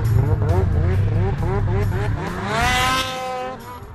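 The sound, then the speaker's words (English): A snowmobile engine revs repeatedly at a lodge and casino in Hayward, Wisconsin, in winter, its whine rising and falling, then climbs to a loud peak as it passes by before fading slightly. “That's the sound of winter fun at Seven Winds Lodge and Casino in Hayward, Wisconsin.”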